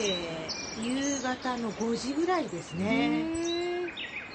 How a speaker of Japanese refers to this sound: 出かけたらこんな音に包まれるんですよ。この鳥の声、